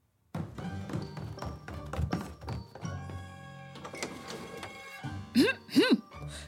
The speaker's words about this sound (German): Ich öffne die Türe. Sie scheint schon auf der Dachterrasse zu stehen.